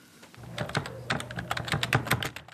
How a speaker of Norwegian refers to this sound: En hverdagslig og ufarlig lyd for de fleste. Men den alvorlige, senete bloggeren som sitter konsentrert bøyd over tastaturet på et lite kontor i Addis Abeba med gardinene trukket for, han vet at ordene han skriver, kan få konsekvenser.